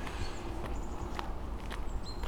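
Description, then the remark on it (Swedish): Steady footsteps crunch at a brisk walking pace along a trail with a little snow and ice on the ground in early March, moderately loud, with faint high bird chirps in the background and no talking. “Ja, här går vi snabbt och lätt framåt. Det är lite snö på backen, lite is.”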